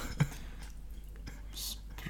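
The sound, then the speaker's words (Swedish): A voice imitates a crackling fire with soft breathy hisses, scattered mouth clicks and pops, and one brighter hissing burst near the end, all quiet. “härma en brasa”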